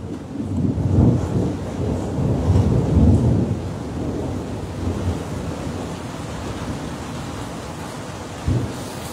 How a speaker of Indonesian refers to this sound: sambil menikmati hujan ini ya.